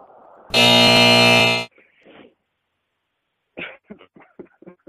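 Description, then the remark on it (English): A loud, harsh game-show buzzer, hit after a bad joke, blares once for about a second, abrupt, followed by faint breathy sounds and a few short bursts like coughing or laughter. “That's just my buzzer. To get, every time I make a bad joke, I hit the.”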